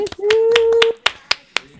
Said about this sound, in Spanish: Aplauso, por favor.